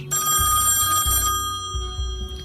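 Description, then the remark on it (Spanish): A telephone rings loudly, its bell trilling in repeated bursts with brief pauses between them, with no voices present. “Con la luz apagada, una botella de Jack Daniels y el último cigarrillo del paquete estoy esperando la llamada que puede que cambie el rumbo de los próximos acontecimientos.”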